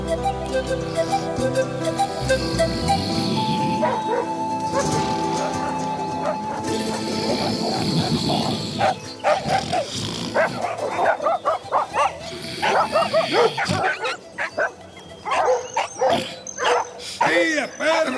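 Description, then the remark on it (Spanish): A dog at an old ranch in a village growls and then breaks into a run of loud barks and yips in the second half, with voices and background sound mixed in throughout. “Quieto, perro, quieto, perro.”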